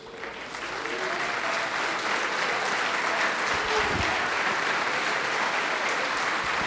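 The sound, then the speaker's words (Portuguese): A large church audience claps steadily and loudly for people coming forward to be baptized, the applause swelling in the first second and holding as a dense, sustained roar, with faint voices mixed into the crowd. “Vamos aplaudir mais ao nome de Jesus.”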